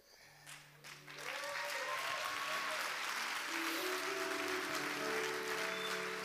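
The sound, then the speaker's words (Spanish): A church audience breaks into loud, sustained applause, quickly swelling after a second and holding steady, with faint tonal music or voices sustained underneath the dense clapping. “Dale fuerte ese aplauso porque es nuestro ADN como iglesia, el encuentro.”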